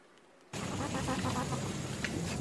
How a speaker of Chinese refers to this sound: 包括这是一种切叶蚁的声音，我当时还录了蚂蚁的声音